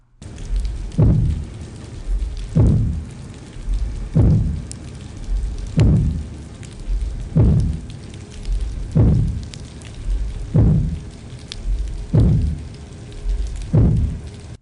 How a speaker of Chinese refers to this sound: 我们来听一下，这个就是呃离岸风场打桩的声音到底有什么影响？